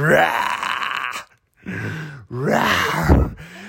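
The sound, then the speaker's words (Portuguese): A person imitates a lion's angry roar in three loud, growling bursts, the first long and sustained, followed by two shorter, rougher roars after a brief pause, with no other talk. “eu, eu, ouvi, eu não ouvia nada do, do quarto, eu ouvi um leão assim.”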